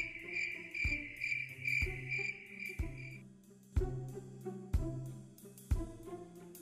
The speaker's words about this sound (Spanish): El campo de noche parece desierto, los ojos piensan que están en lo cierto. Son nuestras orejas las que lo han acertado. Hay cientos de grillos cantando en el prado.